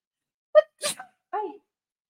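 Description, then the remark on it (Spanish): A single loud sneeze from a person with seasonal allergies: a short voiced catch of breath, then an explosive breathy burst, followed by a brief voiced sound as it trails off. “Disculpen que me da la estornudadera.”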